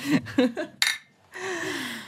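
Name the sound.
beer bottles clinking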